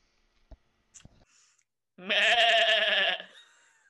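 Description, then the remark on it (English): A person imitates a goat with one loud, quavering bleat lasting about a second, preceded by a couple of soft clicks and mouth sounds. No talking. “Are we all just doing uh, goat noises now?”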